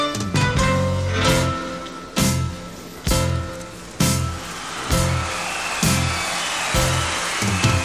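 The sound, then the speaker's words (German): A steady wash of crowd applause, placed into a studio-produced song recording so it sounds live, runs through the song, with loud music chords striking roughly once a second over the clapping noise. No one speaks. “So klingt das nämlich. Applaus.”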